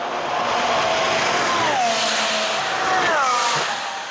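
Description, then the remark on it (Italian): A Formula 1 race car engine from last year's season screams at high pitch, its tone sweeping down and up as it revs through gears, loud and continuous with no one speaking. “e per concludere in tristezza eh, delle Formula 1 dell'anno scorso.”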